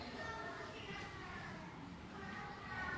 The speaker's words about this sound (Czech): Slyším děti.